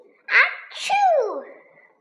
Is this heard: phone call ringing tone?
no